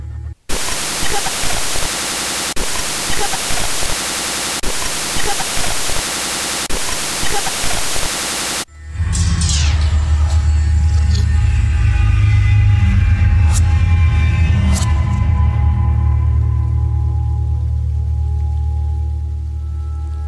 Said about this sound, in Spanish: se aprecia de fondo el característico ruido del diodo